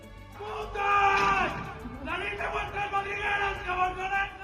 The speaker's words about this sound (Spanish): todos o casi todos sus residentes, hombres, chicos, universitarios, lanzan gritos machistas desde las ventanas de sus habitaciones hacia el colegio mayor de enfrente de chicas.